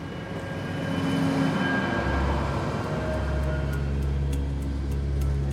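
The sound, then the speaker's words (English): A steady, cavernous rumble fills an empty underground subway tunnel with rails stretching out in either direction, with a deep drone and faint metallic ringing tones hanging in the air. No voices, just continuous hollow ambience. “And that's where we return to the Vermissian Way, an empty subway tunnel, uh, rails stretching out in either direction”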